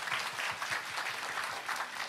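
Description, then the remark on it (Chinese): A crowd claps hands together to give glory to the Lord, in steady, dense applause, many overlapping claps forming a continuous bright patter at an even loudness throughout, with no voices standing out. “哎，拍手把荣耀归给主，好不好？大声一点，大声一点。”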